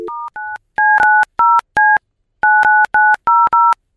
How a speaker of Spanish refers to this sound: Vamos a marcarle otra vez, carnalito. No nos contestó.